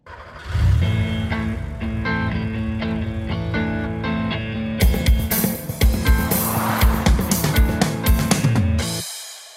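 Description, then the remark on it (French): A short, loud musical jingle layered with revving car engine sounds; punchy percussive hits join halfway through, building energy before it cuts off abruptly. No one speaks. “Euh, tu vas voir, ça va être vraiment très cool jingle.”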